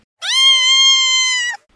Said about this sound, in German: Sie schlug nach dem Büschel und maunzte dabei zierlich. Da alle im Rund absolute Katzenstille bewahrten, klang der Ruf wie ein Schrei.